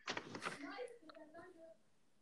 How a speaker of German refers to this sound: Man hört so konstant meinen Bruder so rumschreien, weil der halt zockt gerade.